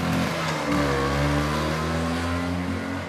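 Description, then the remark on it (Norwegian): A vintage Vespa scooter revs and pulls away from a museum outside Oslo, its small engine's steady buzzing drone holding loud before easing slightly. “Der kjørte scooterentusiast Tom Arheim av gårde fra Vestbarmuseet utenfor Oslo”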